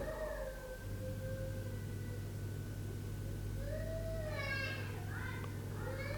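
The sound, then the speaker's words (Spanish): A baby cries in drawn-out, rising and falling wails over a steady low background hum, with the cries growing more strained near the end. “hay un bebé llorando”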